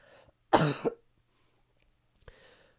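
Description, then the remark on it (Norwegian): A loud cough from an ill person during a broadcast bursts out in two quick harsh pulses, followed after a pause by a softer throaty sound, with faint low background noise throughout. “Hvis det hadde vært en drikkelek på hvor mange ganger jeg kom til å hoste i løpet av denne sendinga, så hadde det jeg iallfall liksom hadde drukket.”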